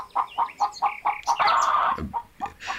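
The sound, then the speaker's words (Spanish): A large hen clucks in a quick, regular series of short notes, then breaks into a louder, longer squawk before a few more clucks follow. “gallina, quédese quieta. Estas gallinas son bien grandes”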